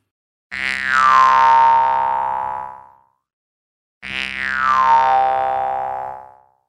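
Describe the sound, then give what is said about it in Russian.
Two twangy jaw harp notes, each made by striking the free central reed and leaving it to ring for a couple of seconds, a steady buzzing drone whose bright overtones sweep downward into a mellow wah before fading. Fairly loud. “Этот центральный язычок он должен всегда быть свободным. Если вы будете его глушить пальцами, губами, зубами, языком, звука не будет.”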